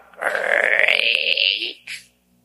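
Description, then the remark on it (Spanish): A voice mimics a door creaking open in a house at night: a drawn-out, raspy groan that slowly rises in pitch for over a second, then a brief clipped sound before it falls silent. “como que se abre la puerta?”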